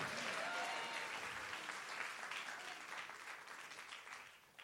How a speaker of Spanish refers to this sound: Vamos, merece un mejor aplauso alguien que lo crea y le diga, Señor aunque sea estéril, voy a comenzar a dar gritos de júbilo.